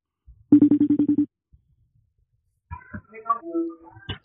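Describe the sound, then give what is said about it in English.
A FaceTime call rings: a quick burst of about eight rapid electronic pulses, then after a short silence a string of brighter, warbling melodic tones, moderately loud. “We should be able to hear it. FaceTime. There it is.”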